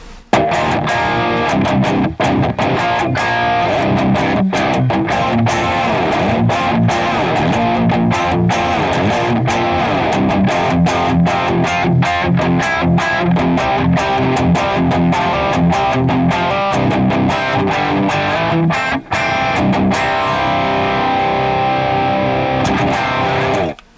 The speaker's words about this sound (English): Uh, that is the Sound of Justice FX Klon, and it's three N's. uh, and that is running a 6L6 power tube section into a uh, Victory Amps Kraken 412. In stereo pair through our Boss IR 200, it sounds like this.